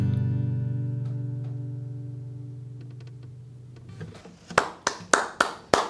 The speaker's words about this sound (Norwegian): Nei, ene publikum klapper, men nå er det Fantastisk.